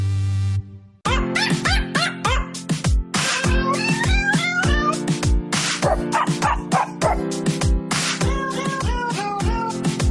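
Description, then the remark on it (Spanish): Animal cries, meows and barks among them, are pitched and sequenced into a bouncy Christmas carol melody over a steady rhythmic backing, loud and close with no talking. “Buena, muy bonito estos perritos y gaticos y animalitos cantando Navidad.”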